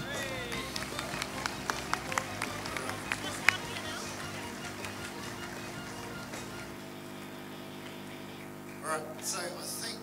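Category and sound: crowd, audience clapping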